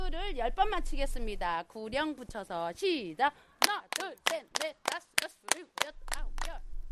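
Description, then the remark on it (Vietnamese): A voice speaks or chants briefly, then a group claps hands in unison to warm up their bodies in cold weather before a forest walk: about a dozen sharp, steady claps in a quick, even rhythm, fairly loud. “Mọi người cùng vỗ tay để làm nóng cơ thể.”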